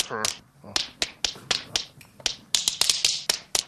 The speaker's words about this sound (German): ich übe hier gerade einen Stepptanz ein.